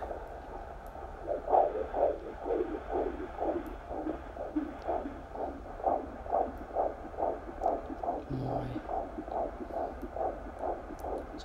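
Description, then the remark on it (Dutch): A fast, steady whooshing fetal heartbeat picked up through a doppler monitor, at around 130 to 140 beats per minute, rhythmic pulses repeating about twice per second over a constant low hum, with no talking. “rond de 130, 140. Oké. Klinkt goed hoor.”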